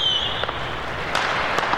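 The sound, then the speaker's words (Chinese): Fireworks crackle in a dense, steady hiss of sparks, with a high whistling tone fading out at the start and a few sharper pops breaking through: a whole set of firework devices ignited at once, bursting across the black night sky. No voices. “只听噼啪嗖砰，璀璨的烟花。”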